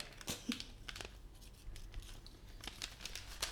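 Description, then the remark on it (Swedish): A gift package is torn open, with a burst of ripping and crinkling wrapping followed by scattered rustles and sharp crackles. Quiet, with no voices. “Den får du öppna med en gång.”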